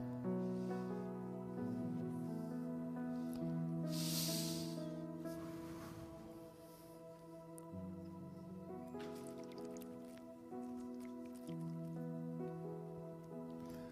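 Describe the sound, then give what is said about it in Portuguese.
A can of Minalba water cracks open with a short fizzing hiss, followed by faint liquid sips and swallows, all over steady background music with no one talking. “William Bonner abre latinha de água. E eu tomo Minalba.”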